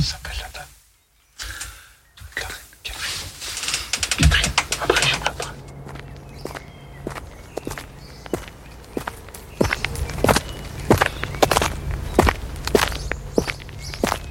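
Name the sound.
footsteps walking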